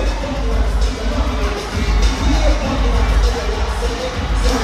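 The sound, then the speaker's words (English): A loud, dense stadium crowd roars continuously, with groups of fraternity members barking like dogs woven into the steady din. No distinct speech stands out. “I know y'all hear that barking.”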